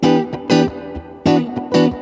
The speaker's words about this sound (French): On fait, là par contre on fait croche de double à chaque fois et on fait Mi mineur 7 et après Mi mineur 9 comme ça en fait.